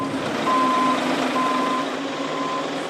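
A gritter truck that is salting the roads reverses on its way to the salt depot in Žernovice to refill. Its alarm sounds three steady, high-pitched beeps in an even rhythm over a continuous rumbling engine, with no voices.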